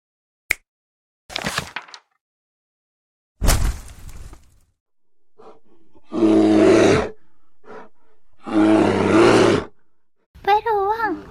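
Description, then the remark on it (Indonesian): A bear lets out two loud, rumbling roars, each lasting about a second, after a few sharp crashing noises, with a brief voice at the very end. “ternyata beruang aslinya serem ya kak padahal boneka beruang yang Nunu punya sangat lucu iya sebenarnya beruang itu hewan buas Nu dia makannya daging”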